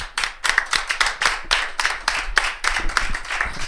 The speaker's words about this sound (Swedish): en applåd!